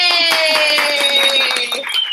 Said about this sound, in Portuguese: Eu tenho aqui convidada especial. Palmas para ela.